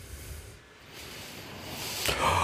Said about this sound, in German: Oh, da gähne ich aber mal schön über diesen Witz, über diesen sehr müden Witz.